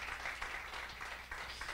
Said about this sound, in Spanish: ¿Cuántos lo creen? Amén. Regálele un fuerte aplauso al Señor.